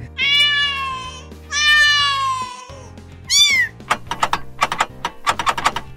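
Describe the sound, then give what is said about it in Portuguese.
A cat meows three times, two long drawn-out cries and a shorter one, followed by a quick run of sharp clicking taps like typing. “E para quem não entendeu por que, que tem um gato miando na nossa vírgula sonora,”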